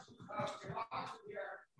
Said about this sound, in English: Okay. Sorry, my dog just came home. That's my dog walker.